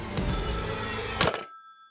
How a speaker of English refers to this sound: Lucy snapped up the phone the second it rang. She held the receiver an inch from her face so Desi could listen too.